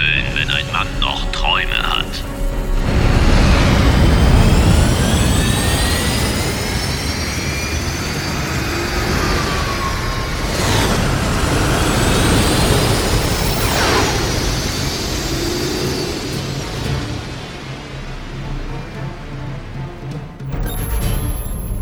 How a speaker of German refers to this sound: Drohnen sind in den Hyperraum gesprungen.